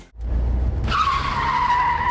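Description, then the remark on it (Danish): A car's tires skid loudly as the car veers, starting with a low engine rumble and then breaking into a sustained high-pitched squeal that holds steady for over a second with no talking. “Ups, trækker din bil til siden?”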